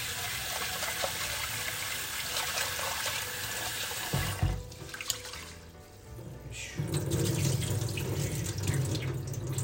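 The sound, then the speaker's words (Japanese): Two go of rice being rinsed in a sink, recorded on an iPhone voice memo: water runs steadily from a tap with sloshing and swishing, briefly breaking off midway before the running water and washing sounds resume, fairly loud. “さあじゃあお米をちょっと今研いでおりますお米2合ですね”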